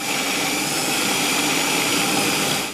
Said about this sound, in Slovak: Polievka nám už začala vrieť, polovička polievky sa rozmixuje. Ako sa hovorí, bude tam aj tá chrumkavá časť, aj tá jemná časť.